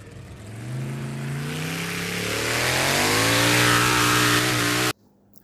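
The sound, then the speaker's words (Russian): A car engine revs hard and accelerates, its loud droning tone climbing steadily in pitch for about five seconds before cutting off abruptly into near silence. “Он, что есть силы, разогнался и взлетел так высоко, что крокодилы в реке открыли пасть от изумления.”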